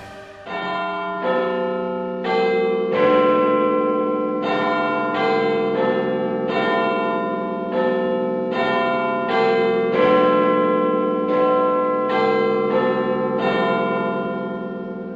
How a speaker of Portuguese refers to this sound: No Palácio de Westminster, em Londres, na Inglaterra, está instalado um dos mais conhecidos sinos do mundo. É bem provável que você o conheça da televisão, dos livros ou ouviu alguma história sobre o famoso Big Bang.